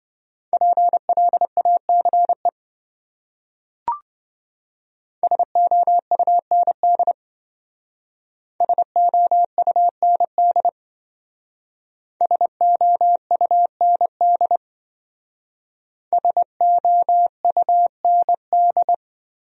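Morse code beeps at 20 wpm spelling one of the 200 most common words: a steady mid-pitched tone keyed into quick dots and dashes, sent in five short bursts separated by pauses, with a single faint click early on.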